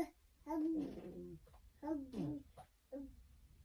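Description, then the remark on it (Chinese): A five-month-old baby lying in bed babbles on its own, learning to talk, in several short, pitch-gliding bursts of coos and vowel sounds, with rising and falling tones and brief pauses in between. “那是他自己躺在床上学说话的声音。”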